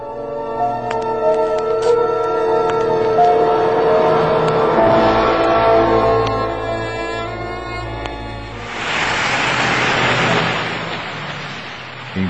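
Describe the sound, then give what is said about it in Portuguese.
Steady traffic noise fills the street, with engines humming and droning as cars go by, then one vehicle sweeps past louder in a broad whoosh near the end. “o menino corria pelas ruas, se desviando dos carros, arriscando a própria vida.”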